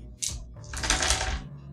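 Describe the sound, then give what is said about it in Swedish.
Nine dice are rolled onto a hard surface: a short click, then a dense burst of rattling and tumbling that lasts under a second before settling, with no talking. “Du eh, slår nio tärningar.”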